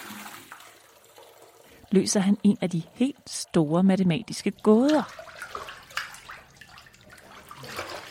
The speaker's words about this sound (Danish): Hmm, der ryger vand ud, når jeg sætter mine ben i det fyldte badekar.